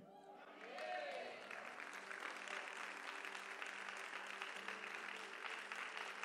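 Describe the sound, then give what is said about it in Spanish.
An audience breaks into sustained applause, a dense, steady wash of many hands clapping that swells within the first second and holds at full strength throughout. “¿Podría sostener ese aplauso para celebrar?”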